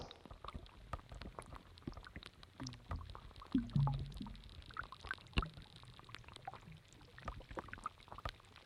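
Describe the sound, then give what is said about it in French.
Dense, irregular crackling and popping of tiny air bubbles escaping melting glacier ice, mixed with low watery gurgles and occasional louder pops, recorded close to the glaciers of Isère in summer 2020, with no voices. “des glouglous ou, des, ou des sons qui ressemblent un petit peu à un, un gros système digestif parce que c'est des petites bulles d'air qui se libèrent de la glace et qui créent comme ça des petites choses crépitantes ou gargouillantes.”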